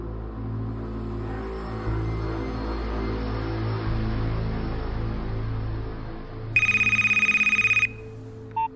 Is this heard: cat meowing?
no